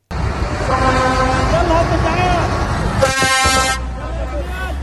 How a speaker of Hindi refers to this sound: ये आवाज थी गाजा में बीते दो हफ्तों में मदद के पहले ट्रक पहुंचने की इजिप्ट और दक्षिणी गाजा स्ट्रिप को जोड़ने वाली राफा क्रॉसिंग को खोला गया और रसद पानी और दवाओं के 20 ट्रक गाजा में जाने दिए गए